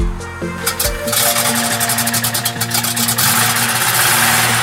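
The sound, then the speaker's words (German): A motor runs steadily throughout, a loud mechanical drone with a low rumble and rhythmic rattling, rising slightly as if revving. No one speaks. “Also es ist so, ich höre den Motor wahnsinnig gern.”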